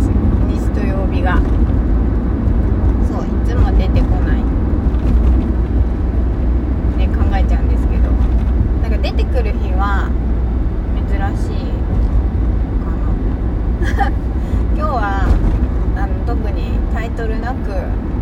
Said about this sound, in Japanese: ダラダラとまたあの車の中スタジオなんですが話していきたいと思います